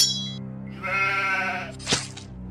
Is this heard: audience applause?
no